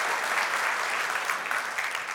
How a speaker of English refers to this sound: Can we thank him? Can we give Jesus a praise, a clap of praise right now? Can we thank him?